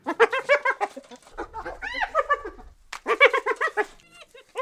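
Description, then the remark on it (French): The giggling laugh of a subordinate hyena in rapid staccato bursts, the notes starting fairly low, climbing higher, then sliding back down, fairly loud, with a brief pause between runs. “On part avec des notes euh, relativement graves, on monte dans les aigus et puis on redescend derrière.”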